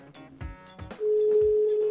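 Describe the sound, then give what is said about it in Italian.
A phone line's ringing tone sets in halfway through, a steady, fairly loud single-pitch hum that holds to the end, preceded by a few soft thumps and clicks on the line. “Il telefono squilla, funziona.”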